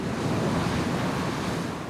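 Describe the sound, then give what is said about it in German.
Ocean surf waves breaking along a coast, forming white foam and a water-air mixture: a steady, loud roar of crashing water and hissing foam with some wind noise, continuous throughout and with no voices. “Die Welle bricht es bildet sich ein weißer Schaum und ein Wasser-Luft-Gemisch.”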